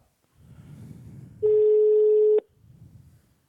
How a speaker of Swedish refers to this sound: Exakt. Bra. Vi, nu ringer vi upp